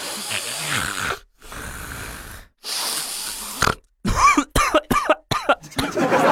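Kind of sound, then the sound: vocal imitation, imitated loud snoring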